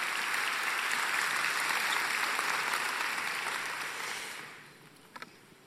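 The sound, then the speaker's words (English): A large crowd claps to God in sustained, dense applause that holds steady for several seconds, then tapers off, leaving quiet with a couple of faint scattered sounds at the end. “You can at least clap to God for that, okay?”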